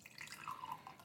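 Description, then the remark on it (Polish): Water pours into a glass in a short trickle, its pitch rising slightly as the glass fills, poured by someone who needs a drink. No one speaks. “To, co słyszycie, to jest nalewanie wody.”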